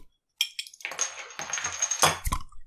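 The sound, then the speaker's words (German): Someone twists open a bottle of non-carbonated iced tea bought in Dresden: a few sharp clicks, then a steady crackling rattle of the cap seal breaking, ending in a louder snap and a dull thud. No voices. “ich tue es mal öffnen”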